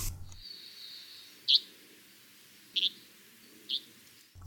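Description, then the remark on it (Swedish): Three short, sharp bird calls ring out one at a time with uneven pauses between them, over a faint steady hiss and no talking. “Det är som en liten padda som sitter i ja, Eller som någon svarthuvad sparv.”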